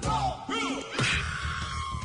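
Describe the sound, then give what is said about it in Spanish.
A voice imitates a mambo bandleader's shout, a loud, strained yell with a rising-and-falling pitch, followed by a sharper burst and a long held cry, alone. “Uno, a ver, ¿cómo gritaba?”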